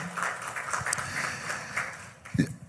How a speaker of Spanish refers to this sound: Dale un fuerte aplauso al que vive por siempre. Amén.